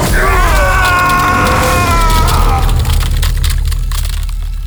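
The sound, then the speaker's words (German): Loud, sustained crackling energy bursts with a harsh sizzling roar and a rising, wavering electric whine as bright lightning bolts shoot from the hands of the Jasmitanerin and envelop two Borgonen, fading into continued crackle and rumble. “Dann schossen grelle Blitze aus den Händen der Jasmitanerin und umhüllten die beiden Borgonen.”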